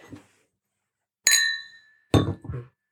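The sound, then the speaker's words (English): A single bright clink of an empty glass rings out and lingers with a ringing tail, followed shortly by a duller knock and brief rattle, fairly loud with no talking over it. “yeah nice one job done empty glass clink”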